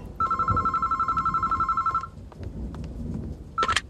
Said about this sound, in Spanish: Y ese día llegó. Sonó el teléfono.